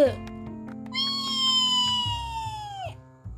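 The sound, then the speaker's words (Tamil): A voice imitates a pressure cooker whistling in a kitchen: one sustained, fairly loud high-pitched whistling tone that holds steady for about two seconds, then slides down and cuts off, over a low background hum. “அப்படின்னு கிச்சன்ல இருந்து குக்கர் சத்தம்”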